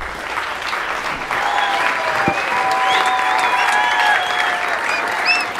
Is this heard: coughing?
no